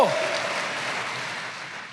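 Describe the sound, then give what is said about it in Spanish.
A crowd applauds together for the Lord in a dense, steady wash of clapping that fills the room, then slowly fades over a couple of seconds without any speech. “Ahora sí, déle el aplauso al Señor, porque amigo en la vida solo Cristo.”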